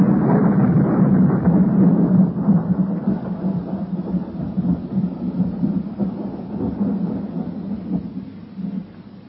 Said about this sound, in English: And then this storm.